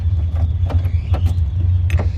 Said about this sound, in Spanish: Bueno, estoy cerrando la puerta de atrás donde venía el maletín